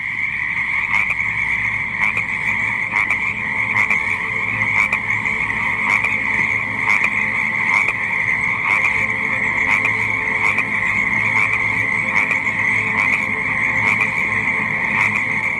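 A dense chorus of frogs croaks steadily and loudly throughout, with rapid pulsing calls layered over one another and a constant droning background, no voices present.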